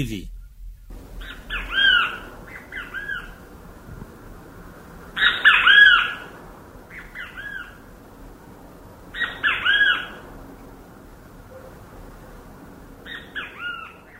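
A great kiskadee (bem-te-vi), recorded in São Paulo, calls loudly and clearly in repeated bursts, each a bright three-part phrase, spaced a few seconds apart over a faint low background hum.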